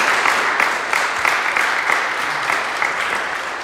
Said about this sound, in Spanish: Gloria a Dios. Dar aplausos al Señor, hermano. Bendito sea su nombre.